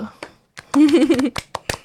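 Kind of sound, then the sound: crowd, hand clapping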